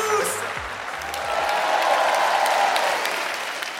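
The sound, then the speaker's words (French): A crowd bursts into sustained applause with scattered cheers, a dense wash of clapping that swells and holds steady, loud throughout: the Montreux Comédie audience welcoming comedian Julien Santini to the stage. “Préparez-vous maintenant à accueillir notre prochain artiste et faites du bruit, où que vous soyez, pour Julien Santini”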